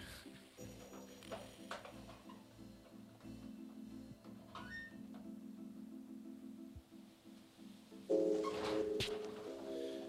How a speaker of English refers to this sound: That wonderful sound you can hear in the background is the the creaking of the corrugated iron roof. I'm standing in a a garden shed.